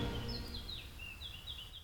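Small birds chirp in short, high-pitched bursts, a few repeated calls sliding in pitch, heard faintly over a steady low background hum with no voices.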